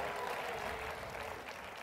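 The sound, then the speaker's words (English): Steady, dense applause from an audience, a continuous wash of many hands clapping at an even loudness with no voices standing out. “Look at all the applause.”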